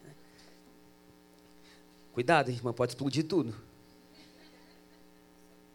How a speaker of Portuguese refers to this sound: Eu preciso que desligue esse fone aqui, ó. Por favor. Porque ele está com algum chiado aqui. Eu acho que o pessoal da frente deve estar tá ouvindo também.